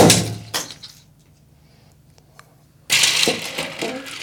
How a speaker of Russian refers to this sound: Нашли шов. Берем нож для собража. Параллельным движением по бутылке мы наносим удар под пробку.